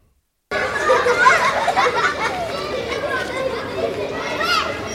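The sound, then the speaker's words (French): A busy school playground full of children's shouts, chatter and laughter, a dense continuous crowd of young voices after a brief silent start. “Parce qu'avant, l'école, c'était ça.”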